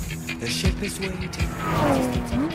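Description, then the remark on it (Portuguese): A sports car engine revs loudly in short bursts while tires squeal with rising, sliding pitches, the vehicle sounding aggressive throughout. “Gostam de se exibir com carros caros, como BMWs ou Porsches”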